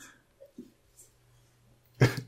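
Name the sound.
sneeze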